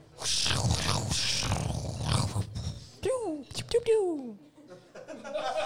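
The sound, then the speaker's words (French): A voice imitates wind with a long, breathy rushing whoosh, then a few quick swooping, whistling glides that fall in pitch. It is fairly loud, with no words spoken. “Bruit de vent.”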